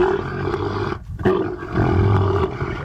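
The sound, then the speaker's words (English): Loud, deep camel mating calls from a spooked camel at an arena: throaty roaring and gurgling bellows in two long bouts separated by a brief pause, with no talking. “Uh, ladies and gentlemen, you are about to hear the noises of camel mating.”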